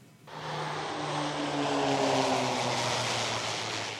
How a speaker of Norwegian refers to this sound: Et livsviktig fly lander på rullebanen. Et ambulansefly. Hvert år blir om lag 9000 pasienter flydd hit og dit, spesielt i Nord-Norge, hvor avstandene er store.